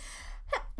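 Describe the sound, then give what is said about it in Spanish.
A single sneeze: a sharp breathy intake rising into a quick, forceful burst of air near the end, with no talking around it. “Salud.”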